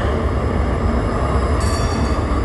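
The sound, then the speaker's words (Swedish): Trams rumble past on the street just outside, in Bratislava on a Sunday, a steady, loud rolling roar with a faint high metallic whine from the rails, no voices present. “Och så går det spårvagnar precis utanför, det är de som hörs nu.”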